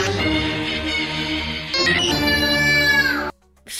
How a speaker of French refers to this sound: Les cris d'enfants.